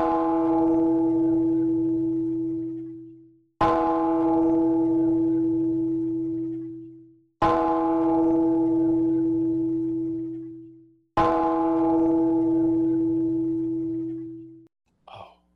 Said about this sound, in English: is this for whom the bell tolls? I believe it may be.